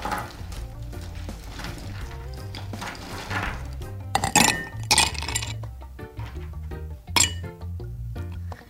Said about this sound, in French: Euh, pour commencer, je vais ajouter les glaçons dans le verre.